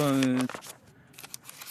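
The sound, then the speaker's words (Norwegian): A short voiced sound opens, then soft papery rustles and flicks follow in a few quick bursts at a low level as someone flips through the pages of a notebook of notes. “Du har notert deg noe, du har en ja. notatbok som du blar her.”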